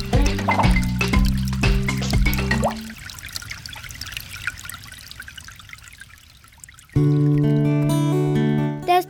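Water drips and trickles steadily for a few seconds, moderately loud, in a Radio Eternidad water-saving message, with bursts of tonal music playing before and after it. No one speaks.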